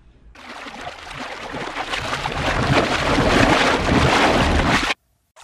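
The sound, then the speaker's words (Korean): A loud surge of splashing, churning river water as a demon leaps out of the river rushes up suddenly and builds over about four seconds before cutting off abruptly, with no voices present. “보살이 이리저리 강물을 살펴보고 있는데 갑자기 철벅하는 소리와 함께 요괴 하나가 뛰쳐나왔습니다.”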